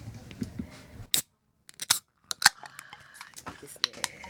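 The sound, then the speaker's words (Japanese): Cans of Susukino Ale beer being cracked open for a toast: a few sharp, crisp metallic snaps spaced roughly a second apart, with soft murmuring voices before and after. “まずはお手元にあるこのすすきのエールをねはい一緒に乾杯で開けんのかなと思って じゃあまずは開けて乾杯しましょうはい”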